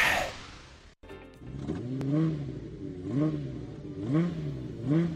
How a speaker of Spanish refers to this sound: Durísimo rugen los motores en el Gran Premio de México, pruebas libres.